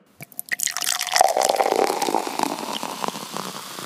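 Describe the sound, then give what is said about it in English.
Cosecha beer, a collaboration beer brewed with 56 Brewing, glugs and splashes steadily into a glass, with a bubbly, fizzing pour that rises in pitch as the glass fills, fairly loud with no voices. “Uh, we've got a full full glass now.”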